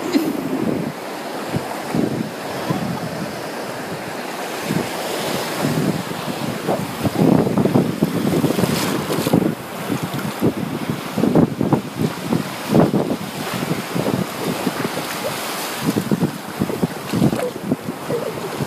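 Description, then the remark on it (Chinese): Blue-green ocean waves roll in one after another, a steady wash of surf with repeated surges and crashes, mixed with gusty wind buffeting the microphone. No one speaks. “一浪接着一浪的过来。喜欢这种被海浪包围了的感觉，有点彻底湿了。”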